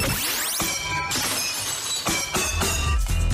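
A chandelier shatters loudly, with a cascade of crashing glass and a dense run of tinkling, clattering impacts continuing for several seconds, without any voices.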